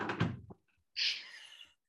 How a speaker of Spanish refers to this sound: Ay, se abrió la puerta de mi cuarto.